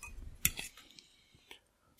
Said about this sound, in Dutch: Dus een hapje burrito nemen tussendoor.